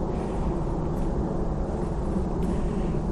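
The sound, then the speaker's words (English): A steady low rumble of a far-off airplane passing overhead, continuous and fairly faint, with no voices; a couple of brief high chirps flicker above the drone. “There's a plane going overhead annoyingly. Very distant actually.”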